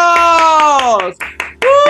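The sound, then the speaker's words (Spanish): Studio applause welcoming a guest to a weekly Wednesday conversation table: quick, rhythmic hand clapping runs under a loud, sustained vocal whoop that slowly falls in pitch, then a few sharper claps and bursts of cheering follow. “¡Aplausos!”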